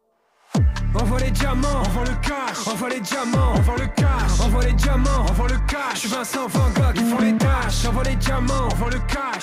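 A hip-hop beat kicks in loud after a brief silence, with heavy sustained bass pulses, crisp percussion and melodic synth layers looping steadily, no vocals yet.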